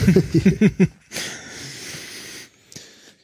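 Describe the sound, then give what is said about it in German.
A few short voiced, laugh-like bursts give way to a long, loud, breathy exhale right up against a headset microphone, ending with a faint click. “Genau, da hört man jetzt auch wieder jedes Atmen und Gähnen.”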